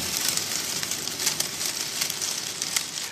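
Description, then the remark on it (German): Fine tape rustled continuously, making a dense, steady crackling patter that imitates rainfall. It stays fairly quiet and even throughout, with faint little spikes and no voices. “Und wenn man dieses feinere Band hat davon, ne, das kann man auch einsetzen als Regen.”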